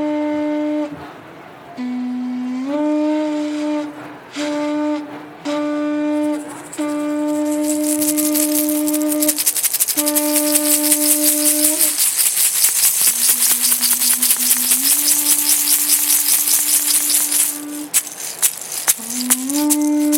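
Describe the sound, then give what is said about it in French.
A conch shell horn (lambi) is blown in a series of loud, buzzy blasts, some short, some long and sliding in pitch, soon joined by a fast, steady rattling shaker. “de nous faire un bon euh, soufflet lambi pour accueillir sa, sa douce et tendre”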